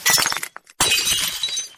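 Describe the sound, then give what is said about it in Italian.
Glass smashes loudly and close by, a first crash with scattering shards, a brief pause, then a second, longer burst of breaking glass and tinkling fragments. “L'esempio classico è quello del vetro”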